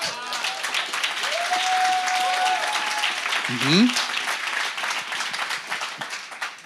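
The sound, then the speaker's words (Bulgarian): An audience applauding steadily throughout, a dense, even patter of many hands, with a sustained whistle-like tone and a brief rising call cutting through partway. “Ако бях в точната църква, щяха да ръкопляскат.”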